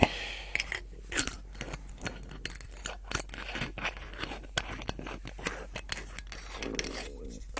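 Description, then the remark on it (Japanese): Black Nikka whisky is poured into a glass of cola with ice, bringing a rapid scatter of sharp clinks, cracks and fizzy crackling that fluctuates over several seconds. “今日はね、氷を入れたグラスに、えー、コーラを積んで、積んでじゃない、えー、コーラを注いできましたんで、そこに、ブラックニッカを入れて交換にします”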